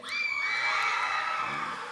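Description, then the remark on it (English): A large crowd of students yells and cheers for their schools in a sustained, loud roar of high-pitched shouts and whoops, without pause. “All right, now yell at me your school.”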